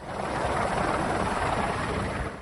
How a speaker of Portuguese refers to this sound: Moradores tiveram que subir nos telhados em busca de ajuda em Arroio do Meio. Seis pessoas da mesma família foram salvas pelo helicóptero da Brigada Militar.